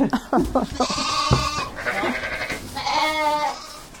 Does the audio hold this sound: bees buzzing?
no